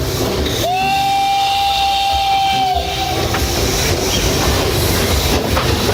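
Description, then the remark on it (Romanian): A narrow-gauge steam train (mocănița) rolls through the Hârtibaciu Valley in the hills of Transylvania with a steady rumbling clatter, and a long, steady steam whistle sounds for about two seconds near the start before the running noise carries on alone. “Plimbarea cu mocănița pe Valea Hârtibaciului este un alt prilej de a simți parfumul romantic al colinelor Transilvaniei.”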